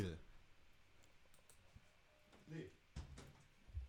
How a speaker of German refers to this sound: Schön, habe ich das Fenster zugemacht.